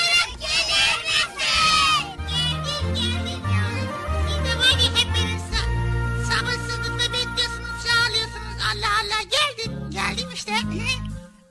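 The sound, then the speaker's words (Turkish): A group of children loudly shouts the name "Bıcır" together to call Bıcır onto the programme, their high voices blending into a lively, noisy chorus that rises and falls over several seconds. “Evet tekrar bir daha yüksek sesle çocuklar.”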